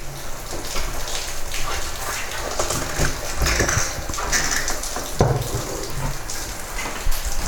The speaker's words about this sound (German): So wie das Wasser da runterläuft, klingt es, als wenn draußen einer duschen würde. Hört ihr das?